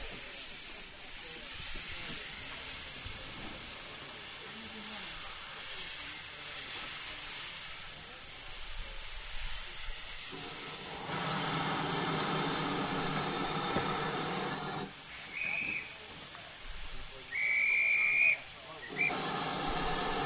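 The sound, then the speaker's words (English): The London Transport L92 steam locomotive, standing at Ropley Station during a crew change, hisses steadily, the steam swelling into louder sustained bursts, with a brief high whistle-like squeal near the end. “Crew change taking place whilst the train is here at Ropley Station.”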